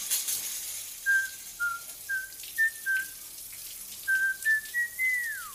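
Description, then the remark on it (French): Someone whistles a short, bouncy tune of about nine clear notes in the shower over a steady hiss of running water, the last note gliding downward at the end. “C'est la musique qu'ils auront en tête lorsqu'ils penseront à votre contenu, même celle qu'ils se surprendront à siffler lorsqu'ils prendront leur douche.”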